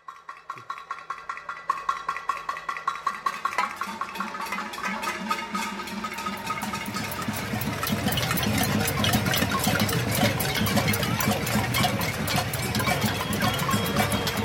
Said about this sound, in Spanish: cae la noche y el sonido de la ciudad es tal vez uno de los sonidos más bonitos de ese día.